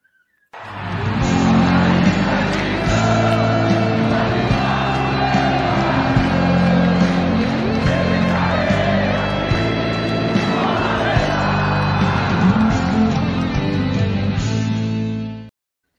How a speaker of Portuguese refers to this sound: Vamos chamar a vinheta, menino, para começar mais uma live aqui no God